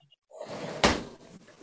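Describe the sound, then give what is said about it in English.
A door is opened with a creaking, rustling sweep, then a sharp knock of the latch or frame partway through, and the movement trails off quietly. Nobody speaks. “I got to open the door.”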